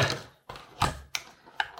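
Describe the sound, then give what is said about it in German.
An ordinary six-sided die (a D6) comes out of a game box, falls and rolls across a hard surface, producing about six sharp, irregular clacks spaced over two seconds, fairly quiet, with no talking. “da geht der Würfel ab. Ein äh, stinknormaler sechsseitiger Würfel drin.”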